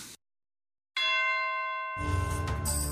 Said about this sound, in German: und wer an dieser Stelle jetzt gerade in unserem kleinen Podcast-Studio geklingelt hat, erfahrt ihr in einer der nächsten Episoden.